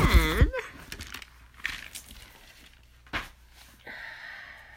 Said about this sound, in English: And I just lost the page because I need to blow my nosey again.